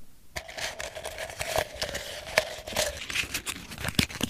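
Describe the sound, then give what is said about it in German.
A folded slip of paper bearing a question from the student body, drawn from a jar, is unfolded, giving several seconds of soft, irregular crinkling and rustling with a few sharper crackles, heard alone with no talking. “Die Frage wird geöffnet.”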